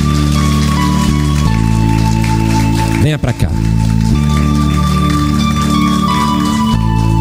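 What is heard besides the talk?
church audience applauding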